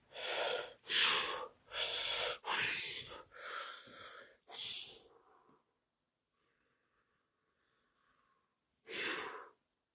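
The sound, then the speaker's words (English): Heavy, labored breathing after running up a mountain where the air is thin: six loud, harsh breaths in quick succession, then a lull of near silence before one more deep, wheezy breath. No speech. “Running up a mountain Take so much air out of you. The air is thin up here.”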